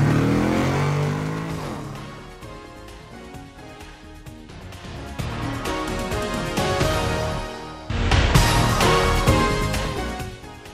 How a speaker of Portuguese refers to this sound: Sérgio engata a primeira e acelera.